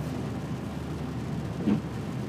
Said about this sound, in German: So, es ist 23.52 Uhr und das verregnete Berlin hat uns wieder gerade noch im Auto auf dem Heimweg vom Flughafen. Das Navi sagt halb eins zu Hause.